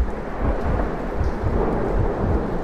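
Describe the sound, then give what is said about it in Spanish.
Steady, dense rain pours down continuously, with a deep low rumble underneath like thunder, filling the whole space evenly without pauses or voices. “No llueve, pero él cree que sí.”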